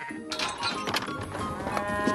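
Cattle lowing on a farm, a few overlapping moos filling the short stretch at a moderate, steady loudness, with no one talking.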